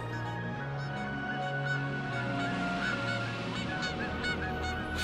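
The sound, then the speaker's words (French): A large flock of cranes calls continuously, overlapping trumpeting cries forming a dense chorus, with a steady low rumble underneath and no voices. “Les amis rencontrés me parlaient d'abord des grues, immanquablement et leurs yeux brillaient d'une joie véritable.”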